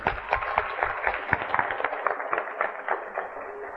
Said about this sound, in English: Clap for yourself. Clap for yourself.